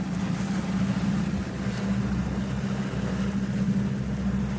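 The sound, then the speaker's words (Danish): A motorboat engine drones steadily at low pitch, continuous, with a broad wash of water and wind noise over it, as the boat trolls at sea with lines and spoon lures set out behind it; no one speaks. “Du sætter simpelthen øh, liner med, med et blink ud bag båden, og så er det bådens bevægelse, der får blinket til at bevæge sig, og så kommer laksen op og ser blinket og hugger.”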